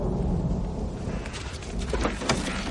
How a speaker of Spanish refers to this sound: Se acerca una tormenta.